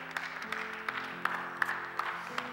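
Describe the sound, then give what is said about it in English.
A crowd gives a hand clap of praise to God, clapping together in a dense, steady wash, with sharper claps popping out at a regular beat, while sustained organ-like chords hold underneath. “Let's give God one more hand clap of praise.”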